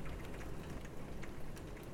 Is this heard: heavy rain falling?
yes